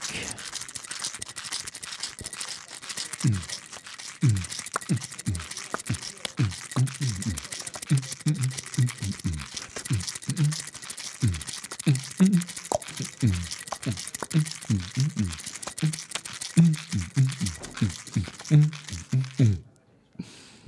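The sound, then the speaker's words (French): Small olive picks, brought by the bartender, shaken together out of rhythm, producing a busy, irregular clatter of light clicks and rattles that continues for about twenty seconds with no steady beat. A voice briefly murmurs. “Non, non, ça c'est pas un rythme, il a juste secoué comme ça hors rythme.”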